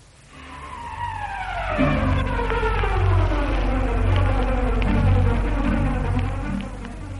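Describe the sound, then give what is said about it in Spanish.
Loud buzzing of golden bees among flowers drones steadily for several seconds, its pitch sliding and wavering as the insects move about, with no voices present. “y entre las flores zumban las doradas abejas, llevando en sus patas, como las mariposas, el polen fecundante necesario para la reproducción de plantas y legumbres.”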